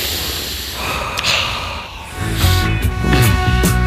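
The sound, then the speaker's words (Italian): A long, loud, airy breath rushes close to the microphone for about two seconds, followed by humming, tonal sounds as another breath begins. “Però insomma mi, mi va di respirare, ecco. Respiri per favore.”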